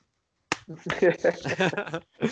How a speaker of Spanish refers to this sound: Después tengo El Resplandor, Obviamente. Originales, ¿no? Estas son unas versiones especiales y también viene una cajita que es como un libro, eh, que es muy linda. Yo hago el ruidito así la gente lo escucha.